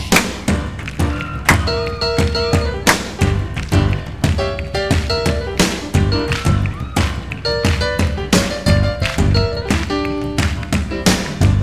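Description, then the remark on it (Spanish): Rhythmic hand claps strike in a steady, driving pattern, sharp and bright, over loud music with sustained tonal chords running underneath for the whole stretch. “Palmas.”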